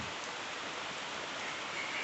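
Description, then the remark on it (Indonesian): Steady rain falls in a dense, continuous hiss, even in loudness throughout, with no voices or other distinct sounds. “hujan gini tuh yang punya apa namanya yang punya kenangan manis kadang suka langsung terbayang gitu ya”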